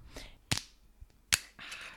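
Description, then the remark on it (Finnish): A wine bottle's screw cap is twisted open: two sharp, bright cracks about a second apart, then a soft rasping hiss as the cap turns free. No voices. “mä avaan tämän pullon nyt.”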